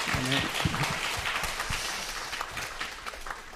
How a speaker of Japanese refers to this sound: まあ、祝福ありますように今日は特別に このお名前を挙げさせていただきました皆さん一緒に祝福の拍手をしてあげていただきたいと思います